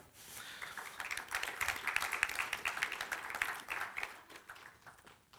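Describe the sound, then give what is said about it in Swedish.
A church audience breaks into steady applause for the sound team, many hands clapping together in a dense, sustained patter that swells slightly and then tapers off over a few seconds. “Så en applåd för David och ljudteamet tycker jag.”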